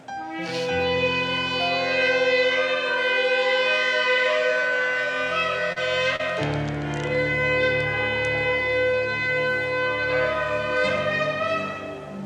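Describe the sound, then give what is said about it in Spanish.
A loud, sustained horn-like blast of a shofar blown during prayer at a church service in Colombia, holding steady tones that shift pitch a couple of times, with a bright, buzzy edge and no voices over it. “Hoy, Padre, te damos gracias porque tú, Señor, escuchas a tu pueblo y que suene el trofchofar.”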